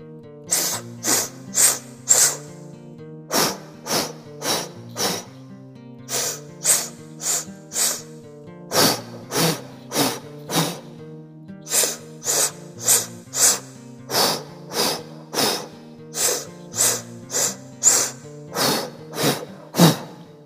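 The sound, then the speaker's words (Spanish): Forceful, rhythmic breaths puff out at a quick steady pace during an active body breathing exercise, in short runs separated by brief pauses, over soft sustained background music. No one speaks. “Vamos de nuevo, vamos a respirar.”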